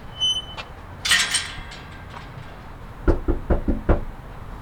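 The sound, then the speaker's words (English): Four firm knocks on a front door in a quick, steady rhythm, preceded by a brief rustle or jingle against a quiet outdoor background, made by a volunteer canvassing for the Ironworkers union in a working-class neighborhood north of Sacramento. “Betchel estimates he's knocked on more than 1,100 doors during his volunteer shifts”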